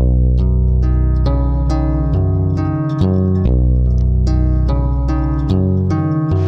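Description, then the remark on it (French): A loud electric bass line on a rebuilt, robotized machine, its strings struck by falling steel balls, recorded alone without the mechanism noise, giving deep, sustained notes with crisp plucked attacks in a steady, repeating rhythm. No one speaks. “Et ça, c'est le son de la basse enregistré seul, sans le bruit du mécanisme.”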